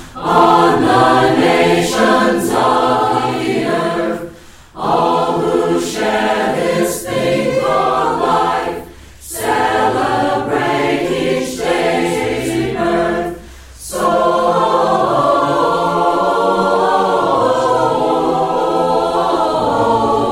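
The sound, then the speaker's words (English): A carol-style song plays loudly and steadily, full harmonic music with brief pauses between phrases, then continuing without interruption to the end. No one talks over it. “Let's go to the second uh, solar carol.”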